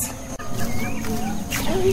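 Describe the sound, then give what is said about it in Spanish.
Chicks peeping: several thin, high chirps rise and fall in quick succession over a steady, busy background of low farmyard noise, moderately loud. “y niños, vamos a escuchar unos pollitos.”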